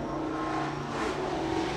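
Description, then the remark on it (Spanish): A car passes along an avenue, its steady engine and tire rumble filling the background for a couple of seconds with no one speaking. “Perdón el, ruido que pasó algún auto aquí en la, en la, en la, en la, en la, avenida.”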